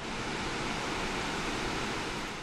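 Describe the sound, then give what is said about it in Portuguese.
A steady, powerful roar of water rushing through the open floodgates of the Furnas hydroelectric dam in Minas Gerais, opened to release excess water. The sound is dense and unbroken like a waterfall, filling the whole clip with no voices. “A usina hidrelétrica de Furnas, em Minas Gerais, abriu as comportas para dar vazão ao excesso de água.”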